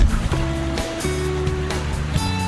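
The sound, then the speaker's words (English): A tsunami wave surges into the coast and breaks on the shore and into the harbor, impacting the city, in a loud, continuous roar of rushing water, with a steady low droning hum running underneath throughout. “What you heard behind me now is the tsunami coming into the coast.”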